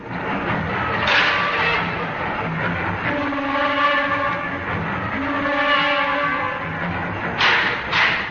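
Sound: tram running on rails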